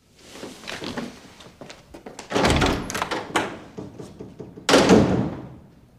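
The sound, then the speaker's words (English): A door is slammed shut with a loud, heavy bang as a man storms out, followed moments later by a second hard thud, with shuffling and movement noises between them. “As evidenced by putting her hands over her head as he blows out the door.”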